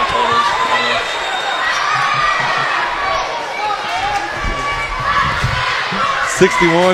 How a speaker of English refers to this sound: If you can't tell, this gym is pretty loud tonight, folks.